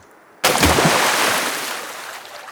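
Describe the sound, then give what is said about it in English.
A big beaver slaps its tail on calm lake water on a sunny day, as a warning to canoe paddlers who came too close to its home: a single sharp, loud smack, followed by a broad splashing wash that slowly fades over a couple of seconds. “a big beaver slapped his tail on the water.”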